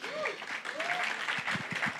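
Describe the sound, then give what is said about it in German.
Steady applause from a church audience welcoming first-time guests, a dense wash of clapping lasting the whole clip, with a few brief vocal sounds and whoops rising over it early on. “Lassen Sie nochmal Applaus geben, ist immer wieder schön.”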